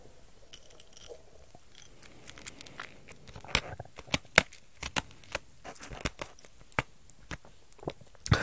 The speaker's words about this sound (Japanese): ちょっと氷噛んでみた。どうですか氷の咀嚼。これ、リアルタイムでモニターできないからどんな音が取れてるかわかんないんだよね。今の氷を噛んだ音です。